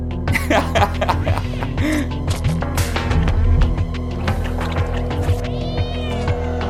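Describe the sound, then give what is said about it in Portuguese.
A cat meows over and over in the video game Stray, high and insistent, amid busy clicks and clatter. The sound stays loud throughout, with no one talking. “Mas eu tenho combatido meu tédio com o famoso jogo do gatinho.”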